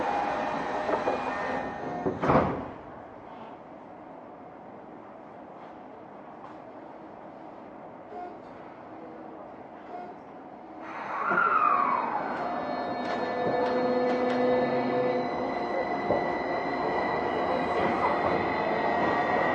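A Tokyo Metro 05 series wide-door subway train on the Nakano–Nishi-Funabashi route runs from Ochiai toward Takadanobaba. It rumbles along steadily, with a sharp clunk early on, then a rising electric motor whine and a louder roar of wheels as it picks up speed. No one speaks.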